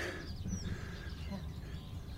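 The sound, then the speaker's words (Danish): Chickens cluck softly, a scatter of low, throaty clucks over a steady background murmur, with no clear voices. “Det er høns. Ja. Derfor gokker de.”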